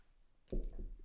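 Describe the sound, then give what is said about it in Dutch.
A short sip of water: after a brief quiet moment comes a soft slurp followed by a low swallowing gulp, with no talking. “Even een slokje water tussendoor”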